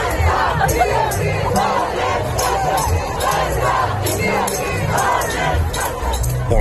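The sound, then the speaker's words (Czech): A protest crowd of several tens of thousands in the streets of Warsaw, Poland, demonstrating against stricter abortion rules, chants and shouts in unison, a dense roar of many voices rising in rhythmic waves, loud and unbroken throughout. “Několik desítek tisíc lidí protestovalo v ulicích Varšavy proti zpřísnění podmínek umělého přerušení těhotenství.”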